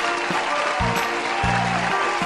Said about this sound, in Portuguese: Palmas.